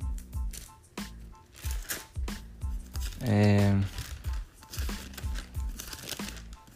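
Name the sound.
flipping through Bible pages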